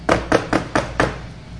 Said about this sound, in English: What it basically means, if I could give you a quick scenario, is going up and knocking on someone's door and doing this.